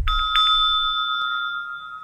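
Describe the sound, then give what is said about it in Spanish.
A single meditation bell, marking three-minute intervals in a meditation, is struck once, its clear metallic tone ringing out loud and steady, with a long sustained hum that fades slowly. No voices are heard. “Así que cada vez que suena una campana son tres minutos que marca el reloj.”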